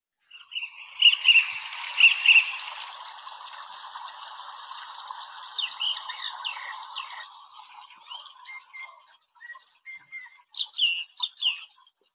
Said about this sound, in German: Ich glaube, dass es eine Nachtigall ist, aber ich kann mir natürlich auch täuschen.